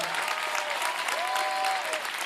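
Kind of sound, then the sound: crowd, audience clapping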